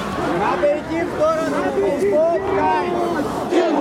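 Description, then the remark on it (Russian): A large crowd at a protest for Navalny's freedom murmurs and chatters in a steady, dense hubbub, many overlapping voices blending into a continuous mid-pitched drone with occasional louder calls rising above it. “Толпа тем временем пока что стоит, но она гораздо значительно больше, чем была еще полчаса назад.”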